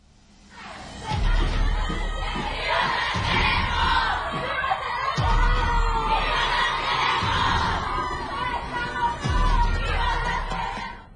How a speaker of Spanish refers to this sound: Al grito de vivas se las llevaron, vivas las queremos. Cientos de mujeres marcharon este 8 de marzo por las calles de Tapachula para exigir un alto total a la violencia que vive este género.